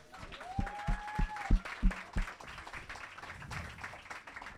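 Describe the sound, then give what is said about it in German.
Audience applause and cheering as a guest is brought out and introduced, with a few loud claps and a rising whistle near the start, settling into a softer, steady crowd clatter. “Macht Lärm für den Timmy Boy!”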